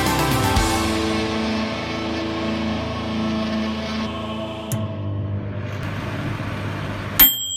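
A microwave oven runs with a steady, close electric hum and drone that shifts slightly in tone partway through, then a sharp click and a brief high beep just before it ends.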